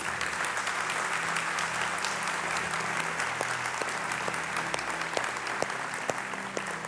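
An audience applauds steadily for several seconds in a round of applause for Jesus, a dense, even wash of many hands clapping at a constant loud level, with a few sharper individual claps standing out near the end.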